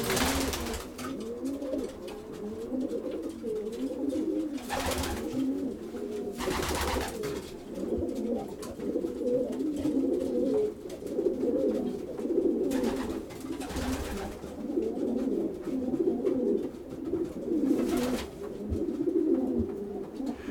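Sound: pigeons cooing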